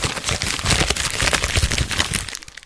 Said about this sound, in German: Ja, Moment, wir müssen wieder den lustigen Papiereffekt machen.